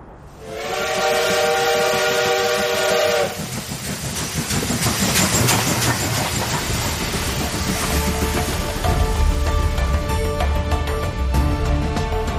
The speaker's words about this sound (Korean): 그날 밤 중국 봉천을 향해 경성역을 떠난 기다란 급행열차가 신촌역을 지날 때였습니다.